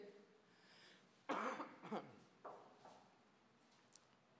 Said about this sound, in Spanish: perdónenme mi tos, ya voy de salida, mis hermanos. Tengo como cinco meses de salida. Es que esta tos se quiere agarrar fuerte, pero déjenla.